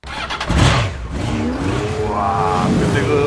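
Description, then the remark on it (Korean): Motorcycle engines of a motorcycle club group rev loudly with rising and falling pitch, then hold a steady, throaty drone as the riders pull away; no one speaks, just the continuous roar of motors. “네, 자유로서 이어지던 그 길 위에서 만났던 소중한 인연 오토바이 동호회 형님들 모두들 잘 지내고 계시죠?”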